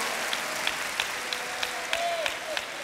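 A crowd applauds steadily, a dense wash of clapping with sharper claps recurring in a regular rhythm about three times a second, plus a faint high whistle-like tone near the end.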